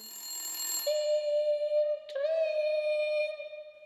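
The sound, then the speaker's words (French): An alarm clock rings loudly and steadily, a sustained shrill tone with a brief glitch partway through, then continuing before cutting off. No one speaks. “Hurla le réveil.”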